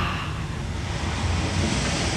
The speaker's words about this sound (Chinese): 他可以听到海浪这样刷